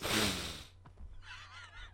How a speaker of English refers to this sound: I'm sorry, that one did start with him doing a big old sniff.